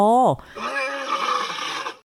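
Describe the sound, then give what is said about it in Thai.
A single loud, rough roar that starts with a brief tonal cry and then swells into a raspy, growling bellow lasting nearly two seconds before cutting off, like a lion roaring. “บ้านเกิดหรือว่าทิ่นกำเนิดของยีราฟนั้นอยู่ที่แอฟริกาที่นั่นมีสัตว์อยู่มากมาย ไม่ว่าจะเป็น ช้าง สิงโต”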